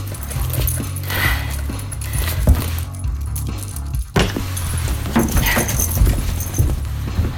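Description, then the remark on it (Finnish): Metallic jingling and clinking of buckles as a harness is put on a dog, irregular bursts over several seconds, mixed with handling rustle and a steady low hum underneath. “Nyt valjat päälle.”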